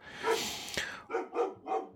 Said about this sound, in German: Mein Hund schlägt wieder an, kommt bestimmt die Post.